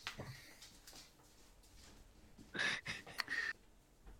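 dog making noise

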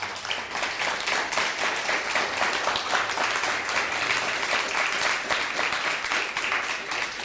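audience applause

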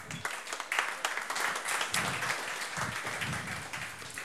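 audience applauding warmly

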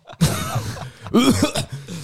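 cough

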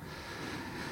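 dog panting

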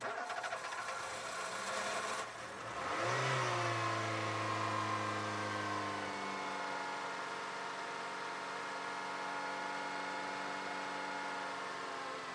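car engine

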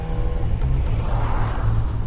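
car interior

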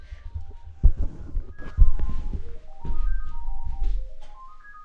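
mobile phone ringtone ringing

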